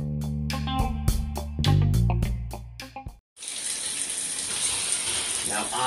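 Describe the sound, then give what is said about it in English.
Brief tonal music plays, cuts out for a moment, then a cold shower starts running with a loud, steady hiss of spraying water that continues to the end. “I'm about to jump in, so let's see what jumps out.”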